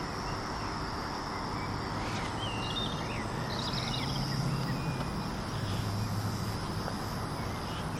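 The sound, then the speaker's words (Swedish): Outdoor ambience above railway tracks, with faint, scattered birdsong over a constant, steady hum of electrical voltage and a high, even buzzing drone. No voices; the sounds stay at a moderate level throughout. “Så här låter fågelkvitter och eh, elektrisk spänning ovanför eh, järnvägsspår.”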